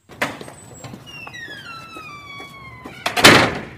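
door being closed

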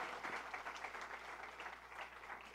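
audience applause

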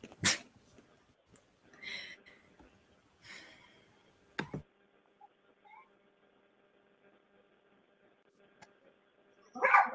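dogs barking

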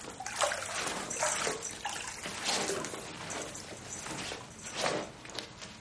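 water

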